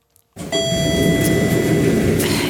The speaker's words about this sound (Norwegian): og der er heisen.